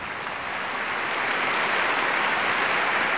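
Sustained applause from a large audience, a dense, steady wash of clapping hands that stays loud and even throughout, with no voices heard above it.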